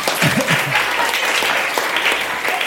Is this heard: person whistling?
no